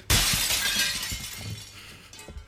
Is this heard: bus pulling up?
no